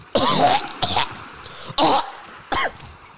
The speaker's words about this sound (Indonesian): Udah tahu batuk lo nanya bangsat.